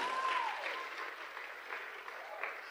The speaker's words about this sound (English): Let's give a clap offering to my pastor.